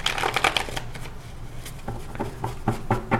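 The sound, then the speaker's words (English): Tarot cards being shuffled in quick papery bursts, a dense riffling flurry at first, then a series of softer, rhythmic taps and slides as the deck is worked, with no talking. “All right, let's go ahead and we're going to shuffle uh, messages for what we pull and pertaining to uh, behind the scenes.”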